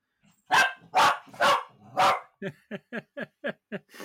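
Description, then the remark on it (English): Dogs barking to each other: four loud, evenly spaced barks, then a quicker run of shorter, higher-pitched yaps. No one is speaking. “yeah, the dogs dogs got upset there when I mentioned credit.”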